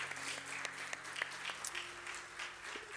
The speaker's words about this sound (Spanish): Y le damos otro aplauso bien fuerte al Señor también y a ustedes por estar aquí.